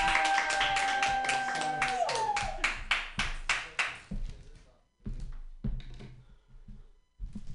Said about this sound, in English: Um, put your hands together for your next comedian, Dan Lewis. Yay!